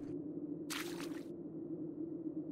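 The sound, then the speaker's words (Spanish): A single brief watery splash or squelch of a child playing in rain puddles in a courtyard just after the rain stopped stands out over a steady low background hum. No voices are heard. “La lluvia paró a los pocos minutos, dejando un silencio que pronto fue interrumpido por el sonido de alguien jugando en los charcos del patio.”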